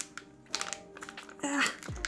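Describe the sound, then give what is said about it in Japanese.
Crinkling and ripping of the plastic wrapper of a SoyJoy soy snack bar, coming in several irregular, effortful bursts as it resists opening, with faint vocal sounds underneath. “マジでハサミ持ってくればよかったかなああんまり綺麗に開けれなかった”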